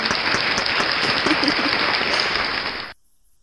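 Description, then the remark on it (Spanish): A burst of applause with many hands clapping in a dense, continuous patter, fairly loud, lasting almost three seconds before cutting off abruptly. “Pues dale un aplauso ahora sí.”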